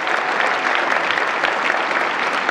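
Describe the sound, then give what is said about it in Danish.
Steady audience applause for Joe Biden as he begins a speech fills the whole stretch, many hands clapping together in a dense, continuous patter at a fairly loud, even level with no voices standing out. “And a special thanks to the 42% of you actually applauded.”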